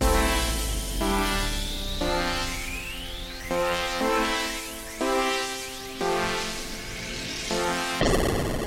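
A short homemade jingle of bright synth chords changing roughly once per second, with rising sweeping tones overhead, ending in a burst of noise. No one speaks.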